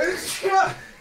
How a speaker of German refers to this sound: Gesundheit. Gesundheit. Ach, Gesundheit. Hab ich kurz in die Sonne geguckt, muss direkt wieder niesen. Ja, kenne ich. Aber das, das klanken aber wie so ein Nieser, der so richtig vom, Inner, vom Innersten kam.